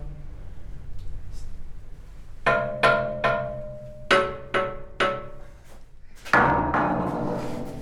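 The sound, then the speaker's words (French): Six or seven hollow, metallic knocks on a heavy, standard-model armored door, fairly loud, coming in uneven bursts, each with a brief ringing tone, then a final heavier thud that lingers. “Ça, c'est une porte blindée modèle standard.”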